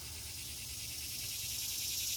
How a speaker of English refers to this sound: Joining us today on our podcast is the cicada in the garden at the Madison Public Library. Do you have anything else to add to that? Yes, he does.